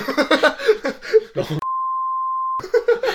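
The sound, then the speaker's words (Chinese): A steady, high-pitched censor beep holds for about one second, a single flat tone cutting off a stretch of talk, with voices chattering just before and right after it. “你等下都要哔哔哔，我跟你讲哦。”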